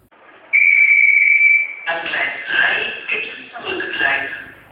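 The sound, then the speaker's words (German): A single steady, high-pitched whistle blast, a train departure signal on a station platform sounded when the platform supervisor pressed a button, lasts about a second and a half, then stops as people begin talking over a busy background. “Und dann hat man, halt die, wie gesagt, die Aufsicht hat dann aus dem Fenster geguckt und auf die Kameras und hat dann den Knopf gedrückt für”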